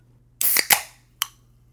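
A seltzer can cracks open with a sharp pop and a quick burst of fizzing hiss, then one short metallic click a moment later. No one speaks.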